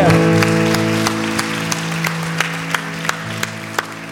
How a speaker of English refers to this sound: Can we give these seven individuals that raised their hand a huge round of applause?